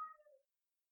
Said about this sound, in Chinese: 你听到的声音是我们家新来的一只猫，它正在嗷嗷叫，请不要介意它的背景音。